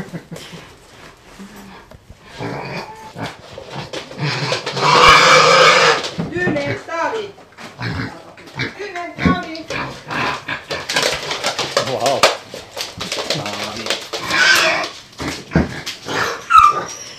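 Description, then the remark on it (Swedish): Several dogs whimper, whine and yip excitedly at feeding time in a family home, with sharp barks breaking out among the high-pitched cries while a person speaks briefly over the commotion. “Ni kanske hör att det är Matdags här i, hos familjen.”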